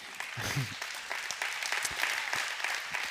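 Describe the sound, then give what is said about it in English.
A church audience breaks into steady applause for over four million dollars it gave in December, a dense wash of many hands clapping at once with crisp individual claps poking through, sustained and fairly loud throughout. “the people that invested the money are the ones that are excited about clapping for it.”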